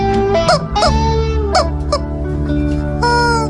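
bird, rooster crowing

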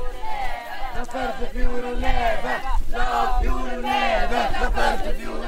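crowd, protesters shouting

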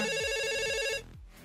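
signal or alarm, telephone ringing

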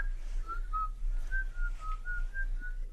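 whistled melody

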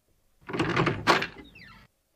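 household object, door being opened

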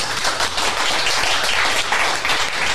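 crowd, audience clapping

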